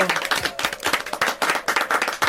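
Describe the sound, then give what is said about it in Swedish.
A short applause sound effect of a small group, dense overlapping claps with a steady rapid rhythm, moderately loud, with no voices. “Uh, eh, jag hittar inte min applåd här. Du skulle få en applåd.”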